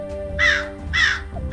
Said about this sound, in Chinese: 嗯嗯，我是来自美国的乌鸦，真正的名称叫做西北鸦。